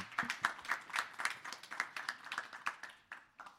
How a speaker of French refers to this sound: Bah, merci beaucoup à vous pour votre intervention. Merci beaucoup. Euh, moi, je voulais juste faire un. On les applaudit déjà.